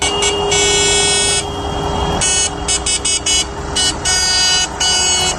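Tractor horns honk repeatedly during a farmers' slow protest march of tractors in the streets of León, Spain, mixing long sustained blasts with short bursts that overlap one another, over a steady low rumble of engines. No one speaks.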